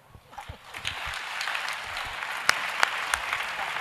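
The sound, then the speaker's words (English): An audience applauds in a steady, dense patter of many hands clapping, with a few sharper individual claps standing out near the end. “Oh, your clapping is not commodious.”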